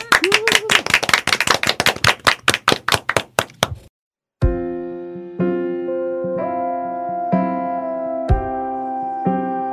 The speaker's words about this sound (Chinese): 把最热烈的掌声送给他们。